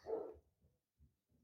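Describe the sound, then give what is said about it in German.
A dog barks once, followed by a few fainter, muffled yips or echoes. The barking is quiet and background-level, with no voices. “ja, man hört es leise im Hintergrund, aber das Rauschen vorhin war lauter.”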